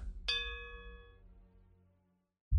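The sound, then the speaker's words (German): A single bell strike rings out with bright, sustained overtones that slowly fade over about a second, over a low rumbling background, before a sudden loud low thump at the end. “Während der Klang der Glocke und der Ruf des Dieners immer leiser wird”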